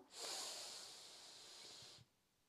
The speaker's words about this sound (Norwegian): For da setter vi i gang. Pust godt inn med nesa.